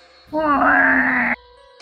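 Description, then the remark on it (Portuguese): A single drawn-out vocal groan rising slightly in pitch, a person mimicking the eerie creak of a red house door swinging open, loud, lasting about a second before cutting off. “Bom, você se aproxima da porta vermelha, e na hora que se encosta nela, a porta abre assim, faz aquele barulho sinistro.”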